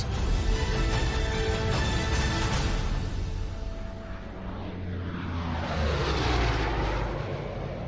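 A loud, continuous drone of propeller aircraft engines fills the air over Holland, swelling and shifting as planes pass overhead: 1,500 aircraft and 478 gliders carrying 21,000 British and American soldiers for the invasion of Nazi-occupied Holland, with no voices present.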